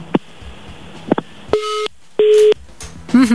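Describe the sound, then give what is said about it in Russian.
A telephone busy tone after a caller's line drops during a call-in: a few faint clicks, then two loud, steady electronic beeps with a pause between them, followed by a brief warbling tone. “И сорвался.”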